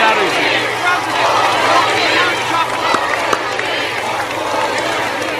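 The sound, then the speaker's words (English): A rally crowd cheering loudly and steadily for several seconds as State Auditor Keith Faber is introduced, a dense roar of many voices mixed with scattered claps and shouts, with no single voice standing out. “That cheering was for you, Keith, I think.”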